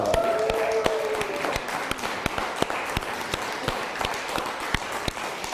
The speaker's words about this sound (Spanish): también un fuerte aplauso.